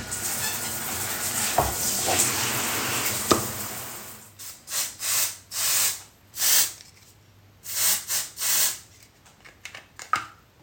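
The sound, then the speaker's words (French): At the Marathon des Sables, a shower runs with a steady, broad hiss for a few seconds, then stops and gives way to a series of short, sharp deodorant spray bursts, some quick pairs, others longer sprays. “Et oui, la petite douche et le petit coup de déodorant, c'est des petits plaisirs très simples du quotidien et qui sont un peu moins quotidiens dans le marathon des sables”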